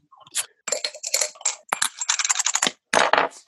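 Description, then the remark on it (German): Metallic clicking and rattling as a crown-capped beer bottle is worked open, ending in a short, bright burst of hiss; no one speaks. “Wenn man das anhand des öffnen Geräusches erkennen kann, um welches Bier es sich handelt.”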